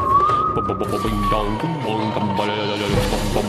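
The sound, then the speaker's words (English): A twanging saw sound effect: one loud, sustained wobbly tone that holds high, then slowly bends downward, with a busy low rumble of other noise underneath. “Someone twang the saw.”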